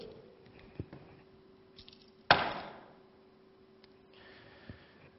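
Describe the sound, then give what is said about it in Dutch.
A bunch of keys hits a hard floor with one sudden clattering crash, followed by a brief metallic jingle that fades quickly. A steady low hum sits in the quiet background. “Nou, de sleutels zijn gevallen op de grond.”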